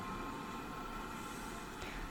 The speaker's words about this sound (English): I'm on a tram in the city, Melbourne City. It's April 2021.